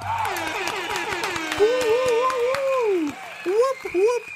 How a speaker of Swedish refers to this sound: Och som vanligt, vi kör en applåd och en tuta på det hörni!